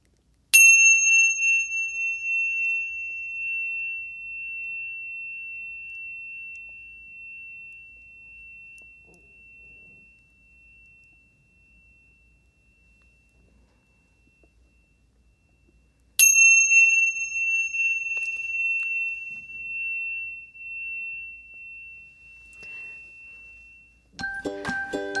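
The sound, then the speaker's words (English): A bright chime is struck twice to begin a brief reflection, each ring sustaining a long, clear tone that slowly fades into near silence, about fifteen seconds apart, before a brief burst of another sound at the end. “let's take a few seconds if you'd care to chime us amy yes into our brief reflection”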